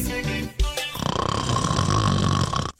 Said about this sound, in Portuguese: de volta por aqui, depois dessa roncada aí de dar aquela acordada, né? Isso aí é pra, pra, animar o pessoal. É pra assustar, levantar, é pra assustar, jeito. Né? rapaz. Barulho acorda qualquer um, né?